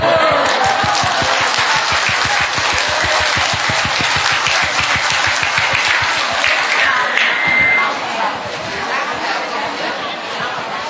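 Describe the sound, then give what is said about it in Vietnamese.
A crowd bursts into loud, sustained applause, dense rapid clapping for several seconds with a murmur of voices underneath before it gradually thins out. “vậy mà một tràng phát là thật to thưa anh chị em”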